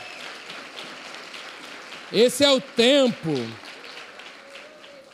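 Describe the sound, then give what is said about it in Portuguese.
A church audience applauds the Lord with a steady, dense patter of clapping that runs throughout, while a voice briefly speaks over it partway through before the clapping carries on alone. “É, aplauda ao Senhor.”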